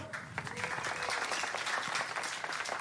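An audience claps steadily for five children, a dense crackle of many hands at even loudness with no voices standing out.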